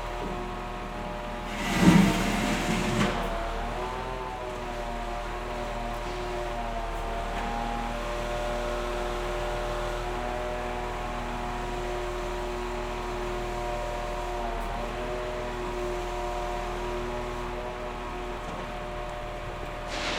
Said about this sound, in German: Der Test war dann eh negativ aber das ist in dem Moment alles egal, weil gegenüber Gleisarbeiten stattfinden und ein LKW mit Baggerschaufelkranaufsatz gerade genüsslich Betonbrösel aus den Lücken zwischen den Schienen kratzt.